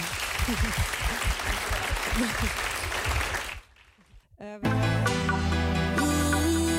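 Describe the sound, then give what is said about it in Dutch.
A crowd applauds a speaker at a lecture steadily for about three and a half seconds in a dense, loud patter of clapping, then it dies away into a brief lull before music abruptly starts. “En nogmaals een hartelijk applaus voor mevrouw”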